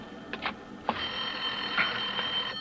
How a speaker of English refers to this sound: Oh, Lorna, there's a phone.